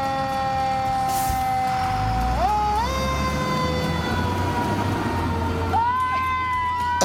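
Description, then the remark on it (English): A fire truck's siren wails steadily with a heavy engine rumble beneath, the tone stepping up in pitch twice as the truck, the last vehicle in a small parade of emergency vehicles passing a house in New Jersey, comes to a complete stop, with a horn-like harmonic drone. “Watch what happened when the fire truck at the end came to a complete stop.”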